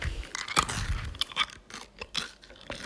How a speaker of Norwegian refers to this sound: Å, det er en sånn deilig tyggis, det der. En sånn som jeg liker veldig godt.